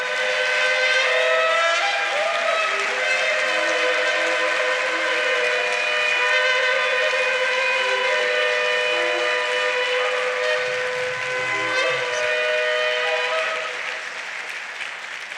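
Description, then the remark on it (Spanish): A church audience claps steadily and loudly for about fifteen seconds, the dense applause blended with sustained, held musical chords, then easing off slightly near the end. “Iglesia, aplaudan.”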